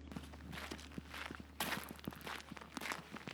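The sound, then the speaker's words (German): Slow, steady footsteps crunch along an outdoor path down an avenue of trees toward a small golden sphere artwork, each step a soft distinct thud with gritty scuffing between, over a low constant hum and a faint rustling background. “Und jetzt gehen wir langsam auf die goldige Kugel zu.”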